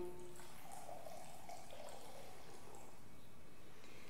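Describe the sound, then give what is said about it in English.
A faint, steady pour of wine trickling into a cup for a couple of seconds, then tapering off against quiet background noise, with no one speaking. “And then when supper was over, he took a cup, he filled it with wine,”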